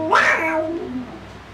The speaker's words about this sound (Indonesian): Apa? Kucing.